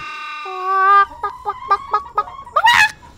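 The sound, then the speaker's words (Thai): A voice imitates a chicken: a long drawn-out note followed by a quick series of short, evenly spaced clucks, ending in a shrill squawk, loud with no talking. “อะไรกันลุง นี่มันไม่ใช่เสียงธรรมดาทั่วไป แต่นี่มันคือเสียงไก่เลยนะ ฟังสิ ฟังสิ”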